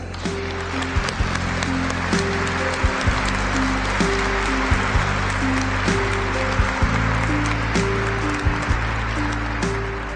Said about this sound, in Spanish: Así que lo menos que se merece es un aplauso.